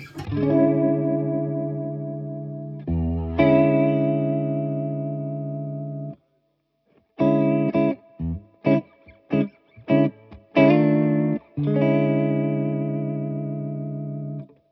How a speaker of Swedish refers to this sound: Leslie-ljudet. Ja, Ja, lite grann.